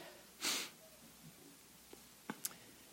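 Paper rustles as a church audience turns Bible pages to 2 Timothy chapter 3, with one soft swish followed by a few quieter flicks and crinkles. No one speaks.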